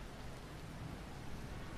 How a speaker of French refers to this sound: Un espèce de zoom qui se rapproche sur l'action, sur, euh, sur le sol, il est en train de pleuvoir.